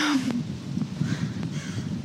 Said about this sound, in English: okay, not the fucking crow. I can't. I'm, I'm like, let me. Can I look it up? Is that okay? We throw a rock at those stupid birds. Hold on one second. They're trying to get on the pod.